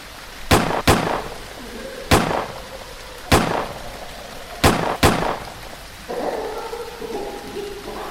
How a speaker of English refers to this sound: I whirled around and fired all six shots of my revolver into the night.